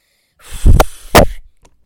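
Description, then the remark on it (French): A child blows hard twice in quick succession, two loud, breathy whooshes, mimicking a wolf huffing and puffing at the brick house, with no talking. “Le loup souffle à la maison en brique.”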